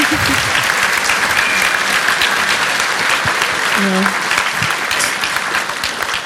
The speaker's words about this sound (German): Können wir auch mal ähm, applaudieren. Ähm, genau, wir können nochmal mal einen großen Applaus geben.